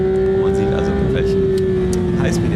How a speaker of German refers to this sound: Das ist am Gang, am Gang beschleunigt. Ja, wie er ein Auto beschleunigt, hier ein Porsche 992 GT3